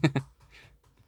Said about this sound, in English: Damn, type louder, bitch.